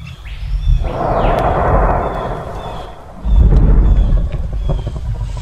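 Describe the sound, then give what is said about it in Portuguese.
A deep, thunder-like simulated dinosaur rumble of very low frequencies rolls through, swelling in two heavy waves with strong low-end weight and a faint high whistling tone early on, no voices present. “É um som mais ou menos assim, ó, esse que vocês estão ouvindo aí foi feito como uma simulação.”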